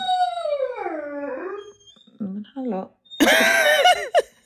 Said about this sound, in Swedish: Nej men skojar du? Vad är det för ljud? Nej men alltså han pratar så mycket den här hunden.